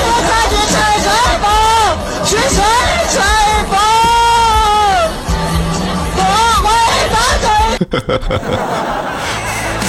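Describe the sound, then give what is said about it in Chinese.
A loud, noisy concert crowd with a man standing beside the listener singing along over the din, the melody rising and falling steadily, before the singing gives way to rough crowd noise near the end. “是不是听现场的感觉是一个原唱都听不见，就只能听见旁边的大哥在吹吹风？”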